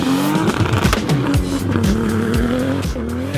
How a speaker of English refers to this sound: You might hear the car sounds in the background.